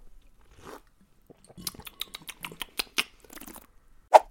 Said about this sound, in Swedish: Ja men vadå, det är inte så trevligt kanske att sitta och höra på smaskande, eller vad tycker ni?